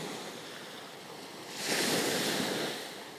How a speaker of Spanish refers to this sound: El mar está tranquilo, pero logras escuchar las olas.